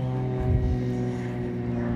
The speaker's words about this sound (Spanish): Aquí se oye todo lo que me rodea. Estoy afuera, caminando en un campo de golf, una avioneta pasó, hay pájaros, hay un avioncito de control remoto.